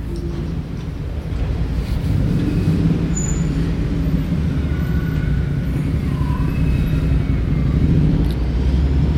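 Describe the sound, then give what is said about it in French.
Steady traffic rumble fills a street in the city centre of Nantes, a low continuous drone of passing engines with faint higher tones drifting through, and no one speaking. “Et là, je suis en plein centre-ville.”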